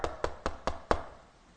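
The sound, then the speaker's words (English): Soldiers knock on a train's cabin door: five firm knocks on wood, evenly spaced at a quick steady pace, the last slightly louder, followed by a brief fading tail. No voices. “They knock on the cabin door.”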